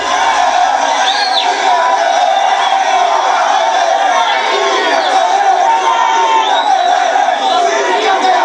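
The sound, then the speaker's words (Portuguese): A large crowd of São Paulo football fans cheers and shouts continuously, a dense, loud roar of many voices with whoops rising above it, at the team's arrival at Congonhas airport in Brazil with the world title trophies, fans shouting 'Fica Tele, precisamos de você!' “E claro, os torcedores gritavam: Fica Tele, precisamos de você!”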